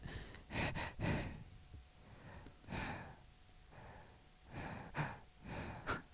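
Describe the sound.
A voice imitates the irregular, labored breathing of a dying patient, alternating faster and slower breathing: uneven gasps and snorting inhales with pauses of varying length, fairly loud, with no speech.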